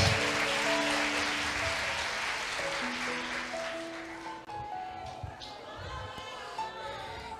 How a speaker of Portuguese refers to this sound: Se eu fosse você aplaudia, Deus meu Deus. Pode aplaudir com vontade.